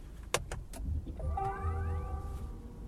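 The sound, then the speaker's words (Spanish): A few sharp clicks, then a car's electronic start-up chime as the car is switched on: steady tones with a rising, sweeping glide that holds to the end, over a low engine rumble inside the vehicle. “este es el sonidito que hace el coche cuando se, cuando se enciende.”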